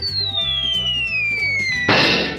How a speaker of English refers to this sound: Act now and you'll also get the sound of a spaceship landing.